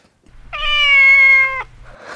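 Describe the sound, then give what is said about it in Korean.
On a Korean visible-radio broadcast, a person imitates an angry cat on a count of three, letting out one long, loud, strained meow lasting about a second, over a low background hum, followed by a brief breathy rustle. “마지막 화난 고양이.”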